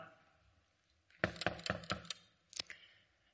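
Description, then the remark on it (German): Four firm knocks on a door in a quick, even rhythm, then a short pause and a couple more knocks, fairly loud. “Und dann sagt unser Bibeltext, Jesus klopft an.”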